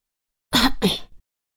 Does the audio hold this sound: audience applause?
no